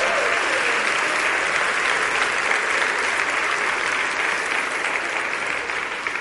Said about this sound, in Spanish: Ya pueden dejar de caminar, digo, van a bajar de peso y todo, pero un aplauso por favor a los muchachos.